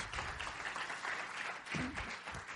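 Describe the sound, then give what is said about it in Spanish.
An audience claps steadily for a few seconds: a dense, continuous patter of many hands at an even loudness, with a brief voice rising faintly through the applause partway through. “Un aplauso, por Gracias a todos.”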